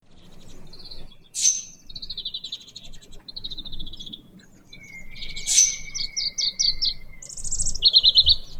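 Dollarbird calls: harsh, high-pitched chattering notes in short bursts, with two sharp, louder cracks and a quick stuttering run of notes at the end. No one speaks.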